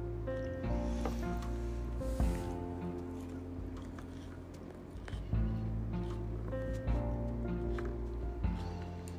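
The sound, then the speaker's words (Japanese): Wet chewing of store-bought fried chicken (karaage) and home-cooked rice that had been frozen: soft squishy mouth sounds and occasional crunchy bursts, with a steady low tonal hum underneath and no talking. “どこまで咀嚼音が拾えてるのかわかんないけど食べながら喋るとなるとブレブランクができちゃいますよねこの噛んでる間は食べ話せないから難しい。”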